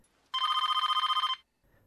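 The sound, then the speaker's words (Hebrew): A telephone rings once in a film, a mysterious call to Neve Campbell's character: a single sustained burst of rapid, trilling bell strikes lasting about a second, loud, with quiet before and after. “וערב לאחר מכן, גם נב קמבל עוברת את אותו דבר. טלפון מסתורי,”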